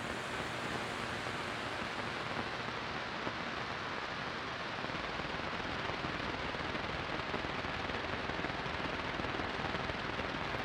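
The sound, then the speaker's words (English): Sustained machine gun fire from Calamity's battle saddle rattles on without pause, a dense, unbroken crackle of rapid shots spread across the full ten seconds, with no voices over it. “I think I heard Calamity fire his battle saddle and yell something, but he sounded too far away.”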